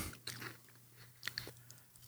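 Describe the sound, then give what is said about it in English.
Crisp crunching of spicy potato chips being chewed, a few sharp crackly bites spread unevenly over two seconds, with no talking and a faint low hum underneath. “No, oh, it tastes like a barbecue chip with a, a spicy after.”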